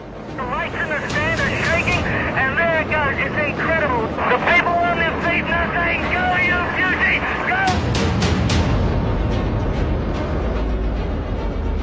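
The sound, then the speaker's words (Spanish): A deep, continuous roar of a Saturn V rocket launching the Apollo 11 mission to the Moon, its five F-1 engines firing, rumbles beneath people talking, with wind buffeting the microphone; the low thunder swells noticeably louder in the final few seconds. “Comienza la misión del Apolo 11 hacia la Luna, dejando tras de sí una explosión provocada por los cinco motores F-1, considerada el mayor sonido producido por el hombre por detrás de la bomba atómica.”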